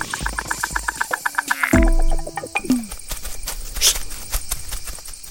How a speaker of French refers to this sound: Ah, le soleil, les cigales.